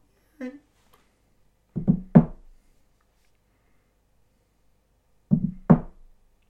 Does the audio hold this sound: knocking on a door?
yes